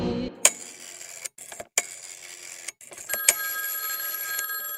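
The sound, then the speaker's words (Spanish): A telephone rings with a bright, metallic bell tone, broken by a few sharp clicks and brief silent gaps, as if from an old payphone, one of the first coin-operated public telephones installed in the metropolitan area. The sound is clear, with no talking. “Para mejorar la comunicación en el área metropolitana se instalan los primeros teléfonos de alcancía.”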